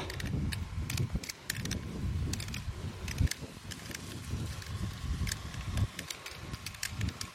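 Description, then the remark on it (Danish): Water of some kind trickles and splashes steadily, a low churning rumble scattered with sharp clicks and drips. The sound is even throughout, with no one speaking. “Der er noget vand af en art.”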